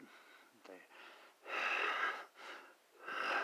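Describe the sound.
A voice imitates heavy, raspy breathing: several loud, drawn-out hissing breaths in a slow rhythm, after a brief soft vocal sound at the start.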